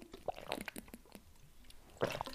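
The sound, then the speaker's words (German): Someone takes a sip of water: a quick run of small wet slurps and clicks, a pause, then a final louder gulp. No one speaks. “Moment, ich trinke mal erstmal einen Schluck Wasser dazwischen.”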